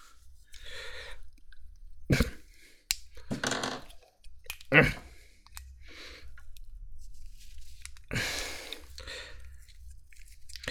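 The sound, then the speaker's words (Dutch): Plastic clicks, creaks and scraping as the large cap of a small bottle is twisted off and fumbled, coming in a handful of irregular bursts with quiet handling noise and faint breathing between them. “Ik denk dat ik eerst de grote dop eraf moet schroeven.”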